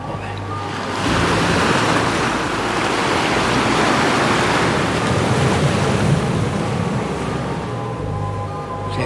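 Heavy ocean surf roars continuously in a storm at sea, with waves crashing and a broad, rushing wash of water and wind filling the whole recording. No voices are present.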